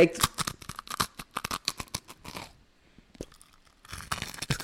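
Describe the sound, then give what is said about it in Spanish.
Loud crunching of a pet chewing pork rinds, with rapid irregular crackling bites in dense bursts, a brief quieter lull partway through, then a renewed flurry of crunches. “está comiendo chicharrón este güey. Quería que lo escuchara.”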